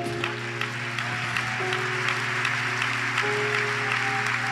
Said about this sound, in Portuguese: Vamos nos colocar de pé, vamos aplaudi-lo em pé ao ah, que é digno, vamos aplaudi-lo mais.